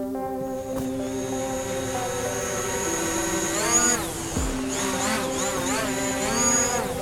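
A camera drone used to collect crop data for precision farming hovers with a steady, dense mechanical whine, its rotor pitch rising and dipping several times as it shifts and maneuvers. No one speaks.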